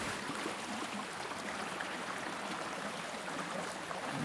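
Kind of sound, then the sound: nature, river water flowing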